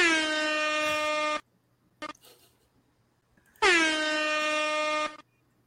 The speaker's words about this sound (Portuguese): Cadê o alarme? Cadê o, cadê o som do alarme aqui? Tá aqui.